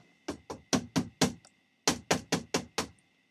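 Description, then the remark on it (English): Two bursts of five sharp knocks on the door of a house, fairly loud, with a brief pause between the sets and no voices. “somebody is knocking on the door.”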